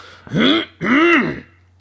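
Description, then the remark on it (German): A voice imitates a father's nervous, aggressive throat clearing: two loud, forceful clearings in quick succession, each a harsh, rasping burst lasting about a third of a second, with no other sound around them. “so ein nervöses Räuspern und das macht mich wahnsinnig”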